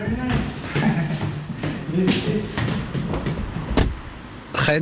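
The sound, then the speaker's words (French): Rustling and shuffling of a delivery driver climbing back into his car after a home delivery in Berlin, with a couple of sharp thuds including a door shutting near the end, with faint voices and background noise. “remonte dans sa voiture.”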